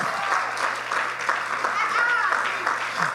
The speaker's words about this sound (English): And if you believe it, would you just clap your hands like you're getting unstuck?